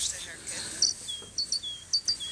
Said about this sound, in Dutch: Een koolmees.